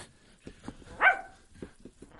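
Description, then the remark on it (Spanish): Titán, a guard dog, lets out one loud, sharp bark, surrounded by a few softer, shorter huffs and noises before and after. “Oh, no, es, es Titán, el perro vigilante.”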